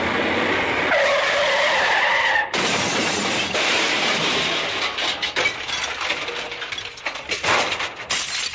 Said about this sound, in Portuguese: Caminhão tá batendo.